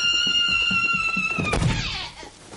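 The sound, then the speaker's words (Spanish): A person runs while covering their eyes and runs into a door with a single heavy thud, after a quick series of soft footfalls, all set against steady high-pitched musical tones that fade after the impact. “Arian corre tapándose los ojos y se da con la puerta.”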